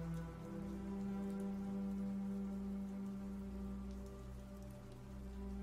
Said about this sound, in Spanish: Escuchamos rebotar las gotas de lo que parece lluvia sobre nuestra superficie.